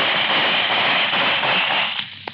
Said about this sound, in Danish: sabotørerne skyder mod hver værkmand, der viser sig i vinduerne.